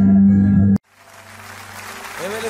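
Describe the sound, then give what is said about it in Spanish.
A loud sustained musical chord cuts off abruptly after a prayer, then an audience's applause, offered to God, builds gradually into a broad, steady wash of clapping, with a brief voice rising near the end. “fuerte ese aplauso a Él.”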